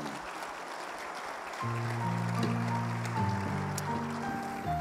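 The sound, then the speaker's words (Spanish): An audience at a Sunday morning church service applauds the Lord in a steady, hissing wash of clapping, and partway through sustained keyboard or organ chords enter and hold beneath the clapping. “Vamos a darle un aplauso al Señor esta mañana, por favor.”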